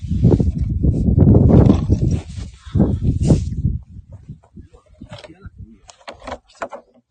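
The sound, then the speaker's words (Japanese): A small gasoline engine is cranked without catching, giving a few seconds of loud, uneven mechanical chugging and sputtering, then trailing off into scattered quieter clicks and rattles. “全然かかんないです、これ。”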